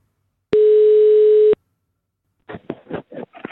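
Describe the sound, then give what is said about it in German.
A single loud, steady telephone ringback tone of an outgoing call sounds for about one second, then falls silent, followed by a few short, muffled bursts of voice. “Oh, es klingelt.”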